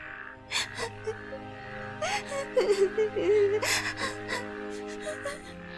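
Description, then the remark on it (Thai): A girl's voice, apparently acted as a princess, cries by a stream after her golden ball fell into the water. She whimpers with shaky, wavering high-pitched wails broken by sharp breathy gasps and sniffles, moderately loud over a faint low background hum. “เจ้าหญิงนั้นนั่งร้องไห้อยู่ตรงนั้น เสียงร้องไห้ของพระองค์ดังขึ้นเรื่อยๆราวกับหัวใจของพระองค์นั้นจะแตกสลาย”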